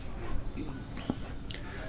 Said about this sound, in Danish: Det er det hele taget en ret vild metro, det her. Der er mere end 413 stationer på metronettet her hvor vi øh, hvor på vores lille metro i Danmark kun har 39 stationer.